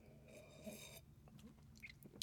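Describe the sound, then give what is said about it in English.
A quiet sip of coffee: a soft airy slurp lasting about a second, followed by faint swallowing and mouth sounds, with no talking. “Let me take a sip of my coffee real quick.”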